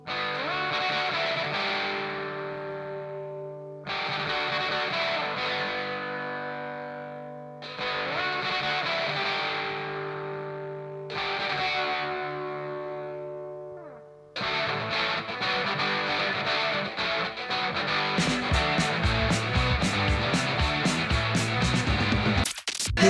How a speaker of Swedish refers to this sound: Det här är väldigt tidigt 80-tal, eh, nordirländsk eh, punkrock.